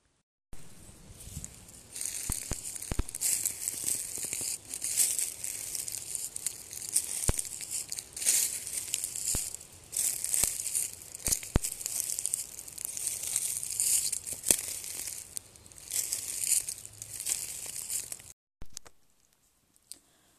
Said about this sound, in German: Und du kannst auch das Knistern wahrnehmen von den Tanzapfen oder kleinen Ästchen, die auf dem Boden liegen. Mit jedem Schritt hörst du sanftes Knistern.